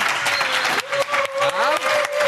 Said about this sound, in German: Also ausverkauftes Haus. ausverkauftes Haus. So das ist praktisch unser unser Podcast, den wir live aufnehmen. Ähm, ich weiß nicht, äh, vielleicht wenn ihr kurz mal klatscht, damit das uns auch überhaupt jemand glaubt, dass äh, ja.